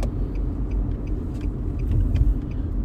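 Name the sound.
car driving past outside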